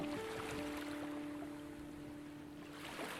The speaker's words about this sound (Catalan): La teva esquena s'acomoda plàcidament mentre escoltes la remor contínua del mar.